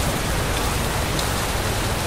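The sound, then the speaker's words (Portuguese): Steady rain falls on slippery sidewalks without a break, a dense, even hiss of drops spread across a broad band with a soft low rumble underneath. No voices or other sounds stand out. “Harp e a garota continuavam andando pelas calçadas escorregadias, debaixo de chuva após saírem do local onde ela trabalhava.”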